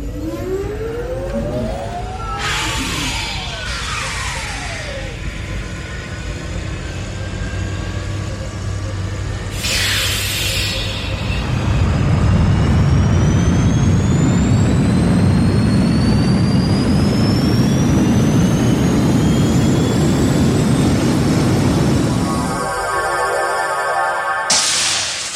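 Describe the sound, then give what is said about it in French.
A shimmering, rising sci-fi teleporter hum, energizing to teleport a targeted object into shuttle hangar 7, swells over a deep rumble, with glassy sweeping tones climbing higher and growing louder before cutting off abruptly near the end. “Téléportez l'objet ciblé dans le hangar à navette 7. Ok, verrouillé. Energizer.”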